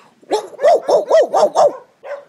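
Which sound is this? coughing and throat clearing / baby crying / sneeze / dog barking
dog barking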